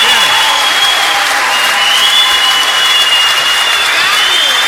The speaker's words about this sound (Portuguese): Vamos aplaudir essa